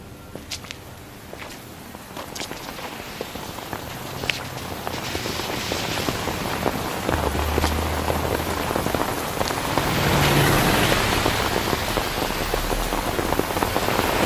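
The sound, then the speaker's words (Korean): Steady rain falls throughout, a dense hiss of drops pattering on a hard surface, growing a little heavier toward the middle, with occasional louder splats and what may be footsteps beneath. “어느 비 오는 날이었습니다.”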